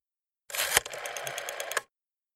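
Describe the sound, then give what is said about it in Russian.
A telephone number being dialed on a phone to reach a personnel (HR) department: a quick, even run of sharp mechanical clicks lasting just over a second, beginning with a louder snap and ending abruptly, with no voices. “Набрав на телефоне необходимый номер,”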